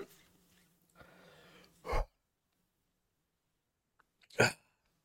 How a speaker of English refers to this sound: I mean, I'm got I've got the hiccups going.